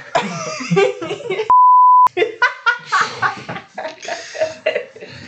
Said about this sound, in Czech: Tvoje jméno vypípáme.